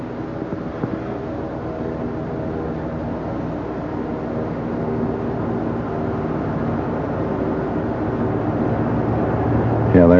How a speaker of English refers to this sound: You can probably hear the sound of a seaplane flying overhead. I'll hold the microphone up so you can hear it. This is a very typical Juneau sound.